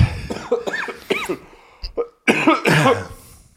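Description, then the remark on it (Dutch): A series of harsh, sputtering coughs from someone who choked on tea comes in close bursts, several rapid hacks followed by a brief pause, then another loud fit of choking coughs, with no talking. “Verslik me in de thee.”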